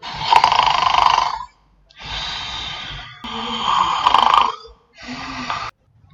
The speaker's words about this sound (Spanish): Y el lobo se devoró a Caperucita Roja en un parpadeo. Estaba tan satisfecho que pronto se quedó dormido y empezó a roncar ruidosamente.